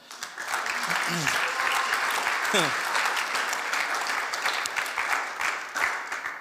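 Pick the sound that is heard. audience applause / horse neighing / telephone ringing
audience applause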